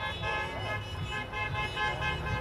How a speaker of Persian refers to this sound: همجور که پشت سر من میبینی طرفداران ترامپ ایستادن موزیک میذارن میرقصن اگر صدای بوغ رو بشنوید من از زمانی که از ایران اومدم بیرون و عروسی ها مردم اینجوری بوغ میزدن تا حالا نشیده بودم همچی چیزی رو